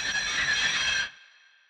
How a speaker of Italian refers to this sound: Tra Leighton Buzzard e Cheddington si imbattono in un semaforo rosso e Mills è costretto a frenare bruscamente fino ad arrestare il treno.